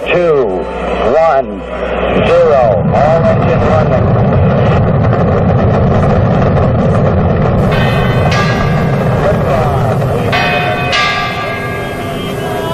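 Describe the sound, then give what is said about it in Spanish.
A church bell named María de la O rings loudly, struck repeatedly so its rich, ringing tones overlap and sustain throughout, with people's voices faintly audible beneath. “¿Tiene nombre la campana?”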